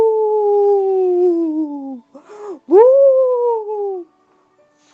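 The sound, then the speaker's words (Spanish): A voice imitates a ghost howling loudly: two long, sustained wails, the first sliding slowly downward, then a short breathy break before a second howl swoops up and gradually falls away. “el aullido más fuerte jamás oído en Casa Coco.”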